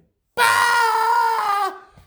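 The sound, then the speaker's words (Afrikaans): A person imitates a jackal's scream: one loud, shrill, sustained shriek lasting over a second, then breaking off with a slight downward slide. “Skree hy jakkals”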